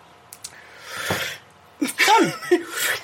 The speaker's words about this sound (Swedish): Det är därför som jag vill ta bort det, för det låter som jag drar en jävla streck. Du drar en streck. Nej, du drar inte en lina. Det är Nej, snus. det är snus. Ja. Jag andas in för få bort saliv.